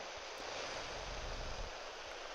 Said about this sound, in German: Und das machen wir jetzt mal. Das bringt uns bloß nicht so viel, weil, ihr hört schon, Rauschen im Walde, das ist FM.